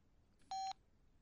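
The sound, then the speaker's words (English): A mobile phone in a jacket pocket rings with an incoming call, a single short electronic beep, a clear steady tone lasting a fraction of a second against a quiet background, with no one talking. “There's a phone in Hector's jacket pocket. What is it? I don't know. The caller ID just says bitch.”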